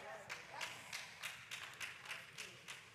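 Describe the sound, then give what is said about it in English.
Three scattered claps from an audience, sharp and fairly quiet, arriving in a loose, uneven rhythm over a soft background with no talking. “Well, at least I got three claps.”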